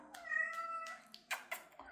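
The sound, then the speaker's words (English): A cat meows insistently, a drawn-out tonal wail followed by a couple of shorter, sharper cries, with no talking over it. “This cat is gonna be the death of me.”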